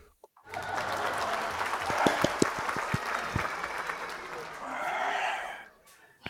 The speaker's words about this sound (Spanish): Bravo. Un, un, aplauso,